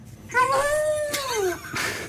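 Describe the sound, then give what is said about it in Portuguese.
A dog lets out one drawn-out, sing-song vocalization that swoops and falls in pitch, almost like a person saying hello. It is fairly loud, with no one talking. “se eu não soubesse que era um cão, Sim. Hum? Dizia, olha uma velhinha inglesa a cumprimentar”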